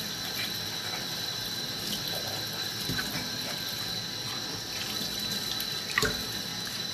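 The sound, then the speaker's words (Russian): A tap runs steadily into a sink while dishes are washed, with a few light clinks and knocks of crockery rising above the constant hiss of water. No one speaks. “что сейчас быстренько вот посудку помою.”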